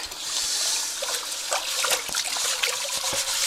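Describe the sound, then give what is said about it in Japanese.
Water runs steadily from a tap with a broad hiss, broken by irregular splashes and clinks as a pot is rinsed and scrubbed under the stream. “ちょっとね、ちょっと鍋を洗いまして。”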